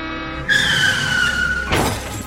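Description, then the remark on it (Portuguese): A bus's tires screech in a loud, sustained skid for over a second, then a sudden crash with shattering glass cuts in and rings out briefly, a serious bus accident. No voices are heard. “Teresa sofreu um grave acidente de ônibus”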